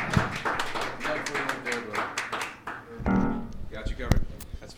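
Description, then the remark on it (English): An audience applauds with a dense, steady patter of many hands clapping at once, with some voices and cheers mixed in partway through, as the evening's judge is brought up on stage at an open mic show. “Clap your hands for him.”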